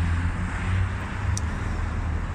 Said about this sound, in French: désolé il y a plein de voitures là.